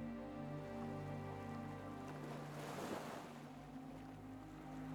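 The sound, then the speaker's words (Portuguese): Ocean waves wash in steadily, with one fuller surge swelling and breaking near the middle before receding into a continuous surf hiss, moderately loud with no voices. “Coloque toda a sua concentração em olhar, contemplar e ouvir as ondas do mar.”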